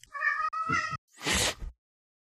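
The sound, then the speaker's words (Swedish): Cats yowl: two drawn-out, wailing cries back to back, then a harsh, hissing, spitting burst. One yowling cat is the pet cat Nemo, frightened by the other cat. Loud and clear with no talking. “Den andra katten som ylade var Nemo som blev rädd för henne för övrigt.”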